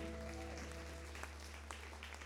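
A church audience gives the Lord a clap offering, a dense, continuous wash of applause, steady and even throughout, with a low sustained hum and a fading organ-like tone underneath at the start.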